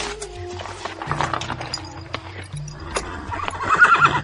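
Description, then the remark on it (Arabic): A horse ridden out in the morning whinnies loudly while hooves clip-clop in a steady rhythm beneath it, with a low background drone and faint voices mixed in. “فلما كان الصباح خرج شريكه الكافر وهو راكب فلما رآه عرفه فوقف عليه”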